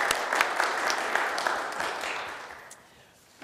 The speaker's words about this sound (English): We also, yes, you should give them a round of applause for that.